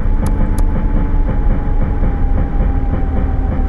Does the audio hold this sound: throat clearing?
no